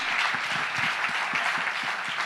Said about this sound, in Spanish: Si le va a dar un aplauso al Señor, ¿eh?